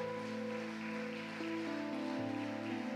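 A crowd claps for the Lord, steadily, in a dense, crackling wash of applause that fills the whole clip, over sustained keyboard chords that shift pitch partway through. No one speaks.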